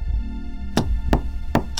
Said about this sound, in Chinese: 房门声再次响起，此时听到这个声音，我不禁脊背一阵发寒，身上也瞬间出了一层冷汗。